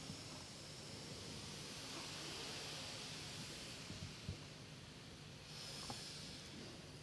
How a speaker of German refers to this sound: Wann immer ihr bereit seid, atmet durchs rechte Nasenloch ein, so tief wie ihr könnt.